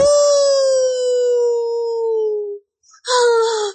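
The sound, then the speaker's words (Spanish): A wolf gives a long, loud, steady howl that slowly slides downward, then pauses briefly before a second, shorter howl begins, clear with no talking. “¡Sí, el lobo!”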